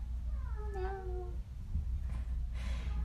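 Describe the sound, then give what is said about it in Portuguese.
A single drawn-out cat meow, rising then falling in pitch over about half a second, followed by soft rustling noises against a low background rumble. “Hoje a gente vai falar sobre gatos, porque é uma coisa que todo mundo gosta. Ó,”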